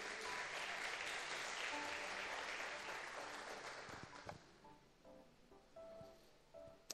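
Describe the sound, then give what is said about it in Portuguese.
An audience applauds Jesus during a sermon, loud, dense, sustained clapping that gradually thins and fades over several seconds, leaving scattered claps and a few faint voices. “Aplauda Jesus se você está comigo.”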